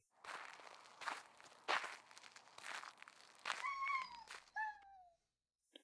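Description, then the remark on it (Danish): Footsteps crunch along at a steady walking pace as Geo walks on, looking for more fireworks, followed by a few short rising-and-falling meows near the end. No one speaks. “Han går videre, mens han kigger efter mere fyrværkeri.”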